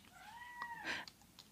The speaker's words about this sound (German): Hast du ihn gehört? Er hat auch Miau gemacht, ne? Ja, der wird jetzt, äh, der, der kratzt jetzt nicht nur, der schreit auch.